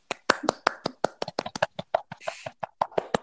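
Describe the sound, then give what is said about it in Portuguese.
Hands clap quickly and loudly for Rudy Gobert, called the most wronged player of the season, roughly twenty sharp, crisp claps in a brisk, slightly uneven rhythm, with no talking over them. “Palmas para Rudy Gobert.”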